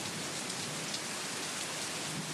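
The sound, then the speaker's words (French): Steady, heavy rain pours down during a thunderstorm in a dense, even hiss, constant with no pauses or distinct thunderclaps, and no voices, at a small wooden seafood cabin on the beach in Kiberville, Seine-Maritime, France. “Mais je peux vous dire qu'avec l'orage, ça va pas être de la tarte.”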